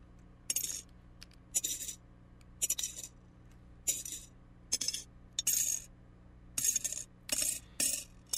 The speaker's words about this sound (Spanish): ¿Qué es esto que escuchamos? Son las monedas de un sueño. Y es el dinero que puede dar la oportunidad de lograr una meta, de cumplir un sueño después de haber sacrificado muchas cosas